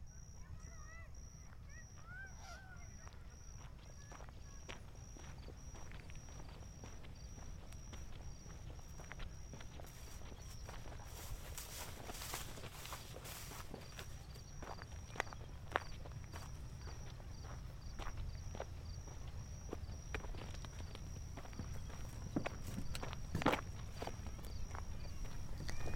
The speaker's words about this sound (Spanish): Todas las personas a las que les consulto cómo diferenciar espacios sonoros en Valencia me llevan a la misma persona, Edu Comelles, el artista sonoro que ha capturado varios paisajes de Valencia. Así, por ejemplo, suena la albufera.